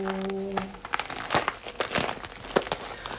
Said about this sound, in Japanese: 喋りながら料理をすることがないのでお肉を開けます なんか不思議な感じお肉を開けますよ